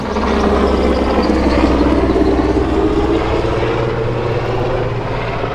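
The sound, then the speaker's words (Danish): A dark green military helicopter of Søværnets Operative Kommando passes overhead, its loud, steady engine roar and deep rotor thrum filling the whole clip with no voices. “lige, lige under hen over hovedet på os nu her. I en flot, mørkegrøn helikopter.”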